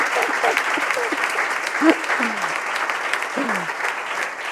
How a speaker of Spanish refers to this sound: hoy en directo desde Sevilla, desde el espacio GH, y para que no creáis que me lo estoy inventando, al público asistente, que ha sido muy paciente además, le voy a pedir un fuerte aplauso para los técnicos de sonido